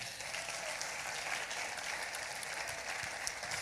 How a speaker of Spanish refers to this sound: Ahora sí, den un aplauso al Señor.